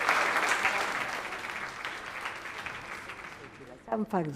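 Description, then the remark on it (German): An audience of young Germans applauds a Holocaust survivor in a dense, steady wash of clapping that gradually thins, and a voice starts speaking just as it ends. “Die Tatsache, dass sie reagieren, indem sie klatschen, zeugt davon, dass sie tief im Herzen das gefühlt haben, was ich mein ganzes Leben auf Erden im Herzen rumtrage.”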